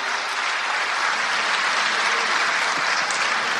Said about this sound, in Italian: Merita l'applauso.